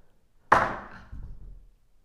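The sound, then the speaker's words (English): A sudden clattering thunk as an object is knocked over by a cat, followed by a softer rumbling scrape and settling noises that fade out within about a second. “A animal just came in here and knocked something over.”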